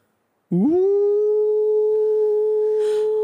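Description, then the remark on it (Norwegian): A single loud wolf howl begins abruptly, sweeping upward and then holding one long, steady note for several seconds, heard alone, with a faint hiss near the end. “Du lytter i et sekund, og du hører et”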